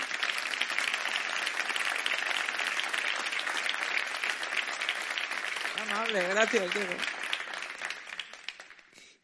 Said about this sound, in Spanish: Partiendo de todo eso, hubo tres grandes reformas que se empezaron a desarrollarse en los años de Esperanza Aguirre, que nos acompaña hoy, me hace una enorme ilusión contar contigo aquí hoy. Eh, merecido aplauso.